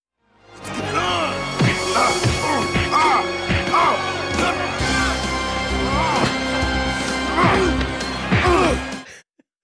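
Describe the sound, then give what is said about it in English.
Repeated dubbed punch impacts land in a steady flurry as wrestlers exchange blows early in a wrestling match, each thwack paired with Flair's dubbed strained grunts and groans of pain, loud over a constant background hum. “There is some absolutely terrible ADR for Flair's noises of pain Ugh. and for the punches that they're landing on each other, especially in the first moments of the match.”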